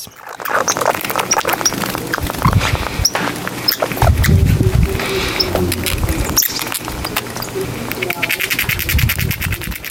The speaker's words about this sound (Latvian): Kā jums šķiet, kas tur skrubs, skrubs, skrubs, skrubs, skrubs? Tās pašas žurkas? Nē, tā bija vāvere. vāvere. tā bija vāvere, kas centās tikt pie rieksta kodola